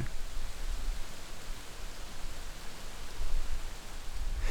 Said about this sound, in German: In den Auen das Rascheln der Pappel.